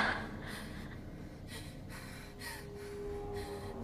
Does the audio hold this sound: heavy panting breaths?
yes